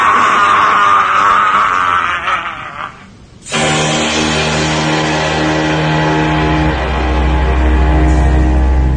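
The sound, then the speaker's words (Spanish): Loud, hellish screaming and wailing from many voices, coming from a strange mass that keeps writhing over itself, blends into a dense, distorted roar, breaking off briefly before surging back as a sustained, droning howl. “Fuera de mí, salí corriendo allí pero no sin primero chupar con aquella extraña masa que no paraba de revolverse sobre misma de la que aún sabían infernales gritos.”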